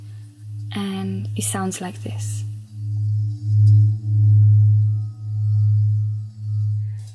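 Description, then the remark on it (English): A singing bowl's rim is rubbed with a suede mallet, producing a sustained low humming ring that swells and pulses steadily, fairly loud, after someone briefly speaks at the start. “Another way to play is to rub the rim, also with the mallet.”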